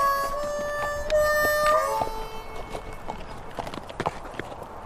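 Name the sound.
horse hooves clip-clopping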